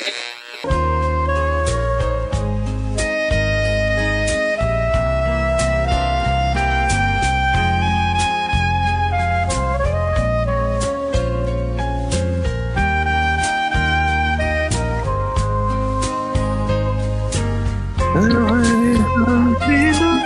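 A romantic song plays steadily and fairly loud, with a sustained melodic line over a pulsing bass. The arrangement shifts in texture for the final couple of seconds.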